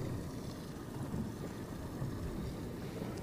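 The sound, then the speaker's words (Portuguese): Steady low rumble of a boat out on open water while divers are in the sea, with gusting wind buffeting the microphone and large waves; a continuous, fairly loud outdoor wash with no talking. “Nós vamos ficando aqui deste lado do barco, enquanto os mergulhadores mantêm este contacto com estes animais se pode ver aqui ondas gigantes”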